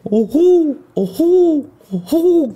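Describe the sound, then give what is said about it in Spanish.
Three loud owl hoots repeat about once a second, each a rounded call that swells and falls in pitch, clear with no talking over them. “lo busqué en YouTube. Es, un búho.”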